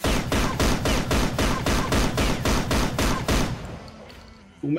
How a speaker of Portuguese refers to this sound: é, ele começa a girar aquela Gatling Gun, ela vai fazendo aquele barulho, vai, vai é, ficando cada vez mais presente, maior o, o barulho. E quando ele começa a disparar, não é um disparo muito rápido, mas é um disparo muito potente.